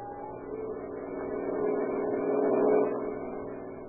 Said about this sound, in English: On the wide cement highway leading out of Olympia, Washington, two boys stand, thumbs pointed south in the familiar gesture of the hitchhiker, and watch the steady line of cars as they speed by.